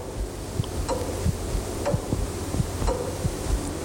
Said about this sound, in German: Und plötzlich hörte ich über mir die Turmuhr.